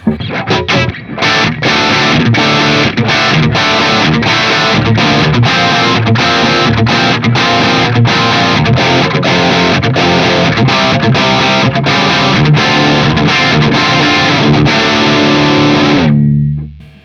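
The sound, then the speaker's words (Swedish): A heavily distorted electric guitar riff played through an amplifier with moderate, classic-rock rather than metal gain plays loud and steady, chugging in a tight repeating rhythm with brief choppy gaps, then stops abruptly near the end. No one speaks. “Ja, låt höra. Spela ja. samma fina riff.”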